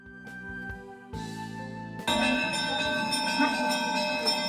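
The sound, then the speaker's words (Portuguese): A church bell rings at seven in the evening to begin the first mass of the feast of the Immaculate Conception, with sustained, overlapping tones that swell louder and fuller partway through, the ringing growing dense and resonant against a busy background. “Às sete da noite, o sino toca começa a primeira missa da festa da Imaculada Conceição.”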